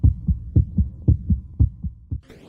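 A steady heartbeat thuds in low, muffled double beats, lub-dub pairs repeating at a quick even pace, fairly loud, ending with a short burst of hiss.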